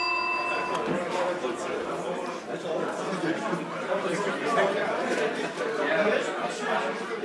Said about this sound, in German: Ein bisschen laut so eine Kneipe, man muss ja fast schreien. Aber es hört auch keiner zu, es ist ideal, um zu reden.